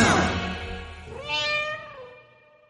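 A single drawn-out cat meow, clear, rising then sliding down and fading away after a brief noisy burst at the start.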